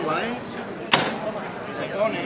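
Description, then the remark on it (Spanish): A single heavy thud as a procession float (paso) is lowered to the ground in the middle of Calle San Vicente on Holy Wednesday, sharp, with crowd murmur and voices continuing around it. “pues se ría el paso aquí en medio de la calle San Vicente.”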